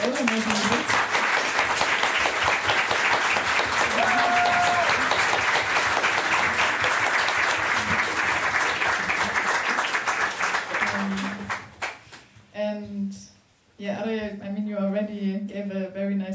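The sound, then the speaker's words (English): An audience at a queer feminist discussion applauds the group in a dense, steady wash of clapping for about eleven seconds, then it thins out and a voice begins talking as the applause fades. “Maybe we can give a small round of applause for the group”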